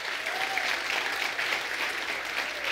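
A church audience claps steadily in applause to the King of Glory, a dense, continuous wash of applause with no pauses, holding an even loudness for a few seconds, with a faint voice briefly audible underneath.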